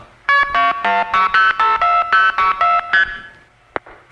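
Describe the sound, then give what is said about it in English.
A quick run of about eleven buzzy electronic tone bursts, the signalling of a telephone exchange in Youngstown, Ohio, routing a call onto a trunk line to Canton, trailing into a fading hiss and a sharp click. “That's the sound of Youngstown, Ohio, dumping us into a trunk to Canton.”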